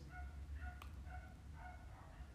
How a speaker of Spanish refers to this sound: Y mira, creo que ese es el perro de mi vecino. Hay muchos perros por aquí, qué bueno, qué bonito.